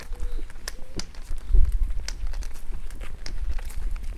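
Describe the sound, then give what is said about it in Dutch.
Footsteps walking on cobblestones along Keienberglaan, a steady series of sharp taps with a low rumble underneath, with a brief tonal beep early on. “Nu lopen we op keien.”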